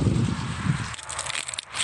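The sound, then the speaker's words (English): A dry, withered corn leaf from a harvested cornfield crumpled by hand, a crisp crackling rustle with low crunching bursts early on, then thinner scattered crackles for about two seconds, no voices. “That's the sound of a crumpling leaf.”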